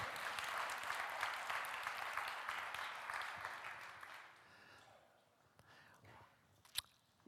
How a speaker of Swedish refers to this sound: Tack så mycket lovsångsteamet. Kan vi bara tacka dem med en varm applåd?